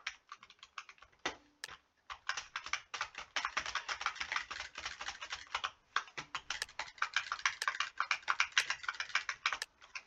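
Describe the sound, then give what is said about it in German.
Rapid, continuous typing on a computer keyboard, with dense clicky keystrokes clattering in quick bursts and brief pauses, fairly loud, with no voices. “Meine Tastatur schmatzt so schön, gell?”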